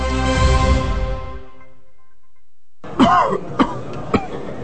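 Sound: coughing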